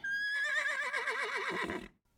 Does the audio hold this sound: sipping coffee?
no